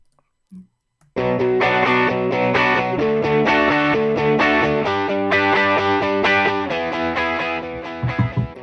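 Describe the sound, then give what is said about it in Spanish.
A short intro music cue for a show's current-affairs section on microplastics bursts in after a second of near silence, a dense, distorted electric band with steady driving rhythm and bright harmonic chords, loud and continuous before breaking up briefly at the end. “Así que vamos a matar la, cabecera y, y seguimos hablando de microplásticos.”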